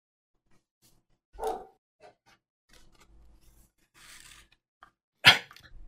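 A dog barks twice, several seconds apart, the second bark louder and sharper, with faint rustling and shuffling noises in the quiet gap between them.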